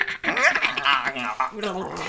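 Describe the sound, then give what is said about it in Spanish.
An irritated binturong growls fiercely, a continuous rough snarl mixed with high, whining cries that rise and fall for about two seconds. “Un binturang feliz puede reír, pero uno irritado emite un gemido agudo o gruñirá como fiereza.”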